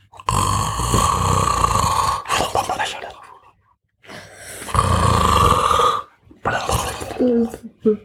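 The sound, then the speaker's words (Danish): A voice imitates a small monster snoring as it sleeps on gold coins: long, loud, rasping growly snores, about four in a row with short pauses between, without other talk. “Oh, og hver gang, at det snorkede, så kunne de se den store hugtænder her i siden.”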